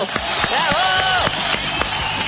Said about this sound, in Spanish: Aplauso muy grande. ¡Bravo! ¡Vamos!